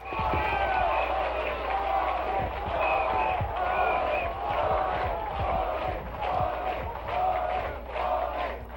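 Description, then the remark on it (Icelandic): A large outdoor crowd on EDSA in Manila, Philippines, roars, chants, sings and dances in celebration as news spreads that the president and his wife have fled, many voices merging into a loud, continuous swell with rhythmic surges. “Fagnaðalæti, söngur og dans brast út á Edsa þegar frettir bárust af flótta fórsættahjónana.”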